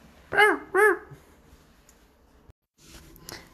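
A dog gives two loud barks in quick succession, followed by a few seconds of quiet background with only faint, low noises.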